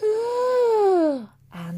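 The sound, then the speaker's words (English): A voice imitates a woman's gasp for air as she was about to be given CPR: a drawn-out, voiced intake that slides downward in pitch, a brief pause, then a short breathy burst, fairly loud. “And as I went to put her onto the bonnet to start CPR, she just gasped, gasped um, in air and she just went, and”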